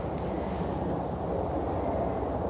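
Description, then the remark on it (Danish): A helicopter drones steadily somewhere out of sight, a low continuous rumble that holds at an even level throughout, on a still, windless day with no insect buzz and no voices present. “Og ikke så meget helikoptergenren, som vi kan høre et eller andet sted.”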